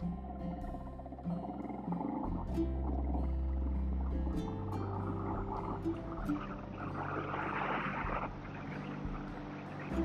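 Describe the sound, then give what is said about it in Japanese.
A motorcycle engine drones steadily while riding on a fine day with a slightly cold wind, its low tone rising and falling with speed, with rushing wind noise over it the whole time. No one speaks. “エンジン音など入っています”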